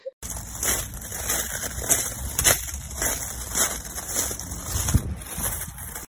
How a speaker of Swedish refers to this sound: Men man kunde gå igenom på vissa ställen och då kunde man gå på de här krasiga Eh, stigarna. Mm. Och jag tänker att om vi kan klippa in det ljudet, för jag har en liten filmsnutt, då ska mm. vi göra det nu.